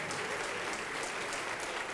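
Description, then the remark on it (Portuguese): An audience applauds the Lord Jesus for each person coming forward to the front with a raised hand. It is a steady, dense, continuous wash of many hands clapping at an even level for the whole stretch, with no pauses or voices standing out. “Vem com a mão erguida, vem para cá e vamos aplaudir ao Senhor Jesus por cada vida que está chegando.”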